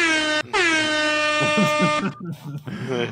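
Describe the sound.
A loud, blaring air horn sounds twice, a brief blast followed by a longer sustained one, with voices starting to talk over the end and continuing afterward.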